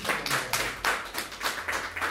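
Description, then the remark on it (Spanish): An audience applauds for God, with steady, rhythmic clapping, the crisp claps landing roughly four times per second at a moderate, even loudness, with no voices over it. “Un fuerte aplauso para nuestro Dios.”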